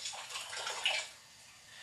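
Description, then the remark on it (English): Water pours steadily into a cooking pot that already holds ingredients, with a bright, splashy hiss that swells briefly, then thins to a softer trickle, with no voices. “forget if y'all don't have enough water, kind of put some water.”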